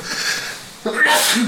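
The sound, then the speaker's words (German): A single sharp sneeze bursts out after a brief quieter moment, loud and breathy with a hissing tail. “Gesundheit. Entschuldigung.”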